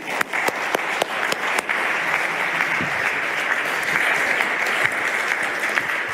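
A crowd claps steadily for several seconds, a dense wash of overlapping handclaps with a few sharper individual claps standing out near the start, holding at an even, fairly loud level throughout.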